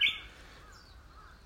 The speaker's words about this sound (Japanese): お今ですね、えー、西伊豆、えー、問いの山の中ですね。はい。竹切ってます。ウグイス鳴いてますよね入ってますかね多分ねはい竹をですね朝から切ってます